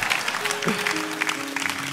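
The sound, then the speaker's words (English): An audience claps steadily for two seconds, a dense, even patter of many hands, with faint sustained low tones humming underneath. “And you're going to clap just like that.”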